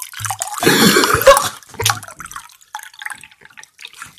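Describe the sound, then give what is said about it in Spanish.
Water is poured for drinking during an ASMR recording, in a loud, splashing burst lasting about a second, followed by a few scattered drips and small trickling sounds that fade out. “Pásame la agüita.”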